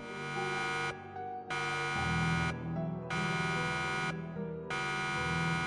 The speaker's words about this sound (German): Plötzlich ging ein Ruck durch die Kabine. Die Warnlampen im U-Boot leuchteten alarmierend auf und eine nervtötende Sirene ging an.